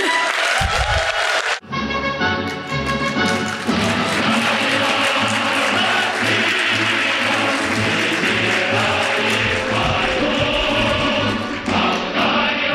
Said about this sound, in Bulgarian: Благодаря за аплодисментите.